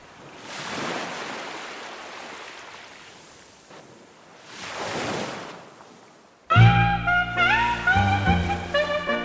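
Two broad surges of ocean surf wash in and recede on a beach, each swelling then fading, before gentle melodic music with sustained tones takes over for the final few seconds.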